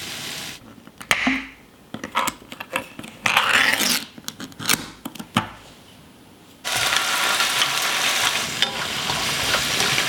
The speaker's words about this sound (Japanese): 今朝はカニ玉のおいしい音色それではお聴きください